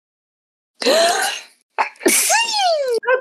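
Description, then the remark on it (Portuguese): A single loud sneeze: a sharp gasping intake of breath, a brief pause, then an explosive burst that trails into a voiced, sliding cry. “Eu vou espirrar.”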